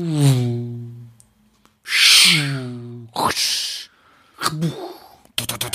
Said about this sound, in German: oh, jetzt bellt der Hund. Ah, jetzt, jetzt habe ich doofe Geräusche, weil jetzt bellt der Hund.